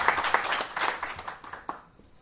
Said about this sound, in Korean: 박수도 잘 치시는데.